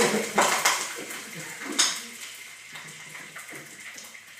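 Water is poured over browning food in a hot pan in a kitchen, hitting it with a sharp sizzling burst and splashes that spread water all over the kitchen, followed by a second loud hiss, then a fainter spitting crackle. Metal pans clatter faintly.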